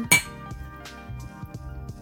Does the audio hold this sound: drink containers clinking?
yes